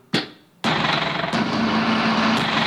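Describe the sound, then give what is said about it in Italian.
A tram rumbles loudly through the city, starting with a sharp clank, then a steady roaring, grinding rattle with a low hum and occasional metallic knocks, with no voices. “Eh, questi sono i rumori del, dei tram.”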